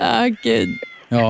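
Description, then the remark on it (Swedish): A cat meows in short, drawn-out calls from inside a studio control desk, with a brief exclamation from a person's voice mixed in between the cries. “ja, det är en katt inne i kontrollbordet.”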